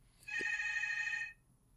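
A hotel room telephone rings once with a steady electronic trill lasting about a second, clear, then cuts off into quiet. No one speaks.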